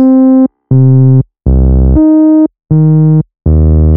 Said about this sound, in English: Let's first turn on our filter. We set cutoff halfway to 50% and use a 24 dB per octave low pass filter. If we now play our keyboard, it sounds a bit muffled